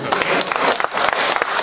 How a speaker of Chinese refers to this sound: 牛逼吧？牛逼！鼓掌啊！